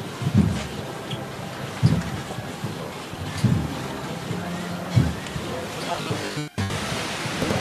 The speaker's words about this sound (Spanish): Escuchan el viento, las hojas.